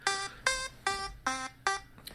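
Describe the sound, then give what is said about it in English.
A timer alarm goes off in a steady run of five bright electronic beeps, each about a quarter-second long, evenly spaced, with no voices over them. “Uh, I wanted to stick to the timer, but fuck it.”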